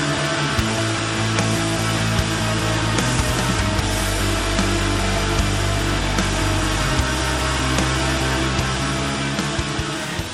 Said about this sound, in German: Sirenengitarre auch sehr viel bei uns.